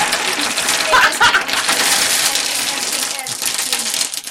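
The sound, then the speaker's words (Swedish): Dice clatter and rattle continuously, a dense stream of small hard clicks as they're shaken and handled, with a brief sharper burst of clacks early on. “Jag måste fixa mina tärningar”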